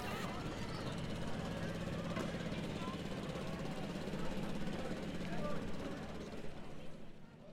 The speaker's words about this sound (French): mais non, c'était pas dans le ciel que ça se passait, c'était bien sur l'eau. Et c'est le bruit de ce moteur qui pousse la barque et qui pousse les jouteurs l'un vers l'autre que vous avez entendu.